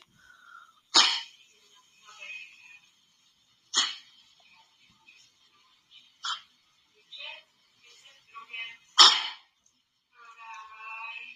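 A dog named Izinka, sick with kennel cough during summer, hacks with harsh, explosive coughs, four sharp bursts a few seconds apart, broken up by softer wheezy snorts and gasps, fairly loud.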